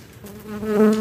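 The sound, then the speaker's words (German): A bee buzzes steadily, its drone swelling louder toward the end as if moving closer, with no voices present. “Das werden wir gleich hören, bleiben wir aber noch bei der besagten Biene und gehen noch weiter zurück, nämlich in die Antike.”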